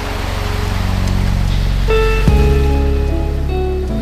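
Steady rushing of sea waves and wind at the shore at sunset, a continuous wash of noise, with soft sustained musical tones joining about halfway through. No one speaks.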